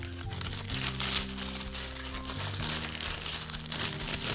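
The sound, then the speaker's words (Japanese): Continuous crinkling and crumpling of thick cardboard and paper packaging from an injectable medicine as it is thrown away, a dense crackly rustle with no pauses for a few seconds, over a faint steady low hum. “えー、ほら、ほら、厚紙だな。ちょっと待ってよ。えー、これ入れちゃおうか。”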